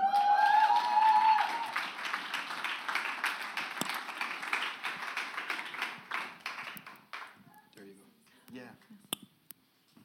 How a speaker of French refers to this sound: On peut l'applaudir